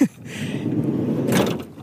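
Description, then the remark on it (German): The sliding door of an old VW Transporter T5 van with long wheelbase, modified for a road tour, rumbles open, a sustained low scraping roll lasting under two seconds with a brief sharp click at the start and a louder clatter near the end. “Komm, lass uns die Tür aufmachen.”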